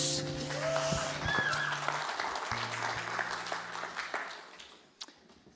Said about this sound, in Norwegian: Gi lovsangerne en applaus.